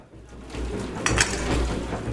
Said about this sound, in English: Maisa is using the kitchen to clean the dishes a washing machine rumbles nearby.